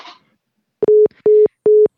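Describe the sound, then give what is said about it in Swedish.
A telephone line tone sounds in three steady, evenly spaced, clear beeps after a brief faint rustle at the start; no one speaks. “Det är ju så här när man spelar in allting i en enda ström och bara ringer och ringer.”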